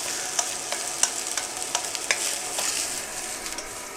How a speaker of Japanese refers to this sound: 結構まあ強めの火でガンガン炙ってですねもう煙が立ち上るぐらい炙ったフライパンにぶっ込む